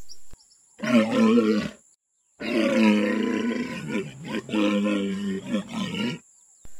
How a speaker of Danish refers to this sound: Det var altså ifølge internettet en hundvalros, vi lige hørte her.